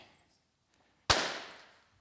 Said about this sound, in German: Dafür lasse ich nochmal einen Luftballon platzen. Nicht erschrecken, tut nicht weh.